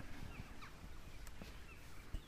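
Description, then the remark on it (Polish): Faint birdsong on a mountain top in Poland, a few scattered chirps over a steady outdoor hiss of wind, with a soft low thump near the end. “No, ptaki pięknie nam śpiewają.”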